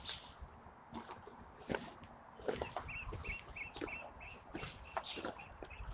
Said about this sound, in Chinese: 这个声音是那个白头杯的声音，叫唤的。对，它在白头白头杯在叫，在这个矮的树上。